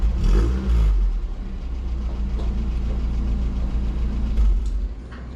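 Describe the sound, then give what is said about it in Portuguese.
A Ford Corcel II engine rumbles steadily, a deep low growl with brief revs near the start and end, as the car parks at a church. “um som difícil de esquecer é o ronco do motor do Cossel 2 de Levi estacionando na igreja”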